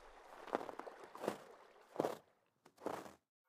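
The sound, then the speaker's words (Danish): Four crunchy footsteps as people walk on along a stream at a steady, unhurried pace, fairly quiet, with short pauses between each step and no voices. “Efter noget tid går de videre.”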